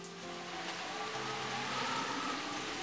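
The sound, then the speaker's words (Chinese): Heavy rain pours down in a steady, dense hiss that stays constant for the whole stretch, with faint low tones humming underneath and no voices. “暴风雨肆虐了好几天，许多森林里的动物都被淹死了，农作物也泡在水里烂掉了。”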